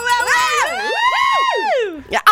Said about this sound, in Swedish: Det är det här skriket, jag älskar det!